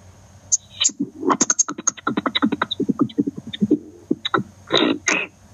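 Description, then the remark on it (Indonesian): A voice beatboxes a fast, busy pattern of clicks, hisses and popping bass hits, sounding harsh and distorted as if heard over a phone line, with a faint steady whine behind it. “Iya, itu aja itu bunyi kayak serius mungkin mungkin bagus mungkin apa itu pasti bagus beatnya cuma cuma karena cuma karena kita lewat telepon jadi suaranya kayak saya punya anak main becek begitu”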